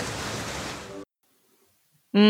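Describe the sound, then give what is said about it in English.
A steady, fairly loud rush of ocean waves washes for about a second, then cuts off abruptly into near silence before a brief harmonic, voice-like tone enters at the very end. “With the waves Thoughts. in the background.”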